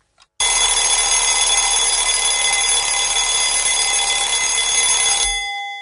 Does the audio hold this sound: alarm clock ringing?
yes